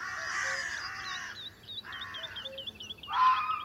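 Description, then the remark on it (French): Carrion crows caw loudly in a series of harsh, raspy alarm calls at daybreak in late April in a forest in the Drôme, France, several birds overlapping as a fox searches near their freshly laid eggs, with small chirping birds faintly audible in the background. “Des corneilles noires ont compris qu'un danger était proche.”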